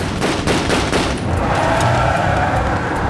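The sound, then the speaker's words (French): An exchange of gunfire at a gendarmerie roadblock: shots fired through the window of an R14 car as it speeds through, and the gendarmes fire back. A rapid volley of sharp, loud cracks in the first second, then a dense, roaring wash of noise that continues without pause. No one speaks. “Jusqu'à ce que Jacques écrase l'accélérateur et décharge son arbre à travers la vitre.”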